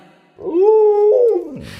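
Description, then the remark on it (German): A dog lets out one drawn-out, complaining whine, a steady moaning tone that rises, holds for about a second, then trails off into a low grumble. It is fairly loud, with no talking. “Ja, jetzt hat er natürlich wieder was zu meckern.”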